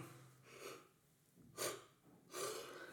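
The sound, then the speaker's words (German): A loud, drawn-out yawn with breathy, airy bursts and a sharp inhale, with no talking over it. “Jetzt hast du aber mal ordentlich gegähnt.”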